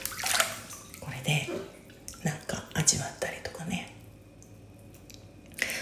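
Gentle water sloshing and small splashes as small waves are made in bath water, a series of soft, irregular laps and drips, fairly quiet, settling into near stillness before one last splash.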